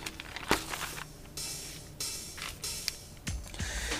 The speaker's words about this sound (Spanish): Bueno, bueno, se escucha, digamos, cuando uno mueve las hojas, sí, porque somos el único programa que trae diarios a la radio, exactamente.